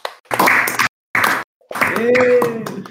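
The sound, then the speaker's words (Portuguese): Hand clapping in three short bursts separated by brief pauses, loud and dense; a voice cheers or hoots over the final, longer burst. “Palmas pro sensacional.”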